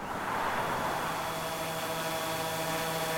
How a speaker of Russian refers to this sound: Внезапно в небе становится заметен какой-то жужжащий объект. Кажется, это дрон. Точно, он самый. Сразу после его приземления вы распознаете в нем аптечку и экран.